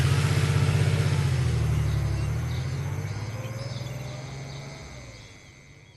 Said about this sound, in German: fuhr mit dem Auto in die Stadt.